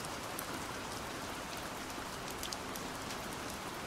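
Steady rain falls continuously at night, a dense even hiss with scattered brighter drop ticks on a surface, holding a constant moderate level throughout with no voices.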